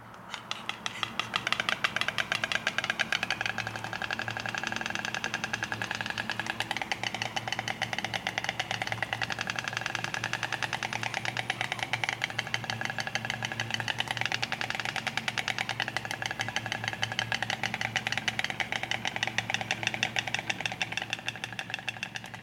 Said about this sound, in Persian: مثلا لک لک صدایی که برای دلبری یا ارتباط با هم نوعای خودش در میاره با نوک خودش و با به هم زدنشون تولید میکنه نه از توی گلوش چطوری؟ اینطوری